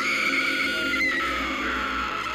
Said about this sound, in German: Sie wollten gerade den Veranstalter aufsuchen, da ertönte ein lauter Schrei aus der Menge.